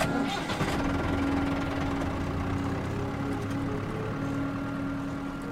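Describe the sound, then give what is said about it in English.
A tractor engine on an old farm surrounded by cornfields turns over and settles into a steady, rumbling idle as the tractor is driven into a barn, loud, with a constant low drone and mechanical rattle throughout and no voices. “He pulls the tractor into the barn the way he has a hundred times before.”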